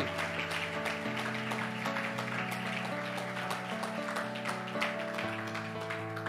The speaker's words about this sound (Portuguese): Ele ressuscitou, aplauda o seu Senhor.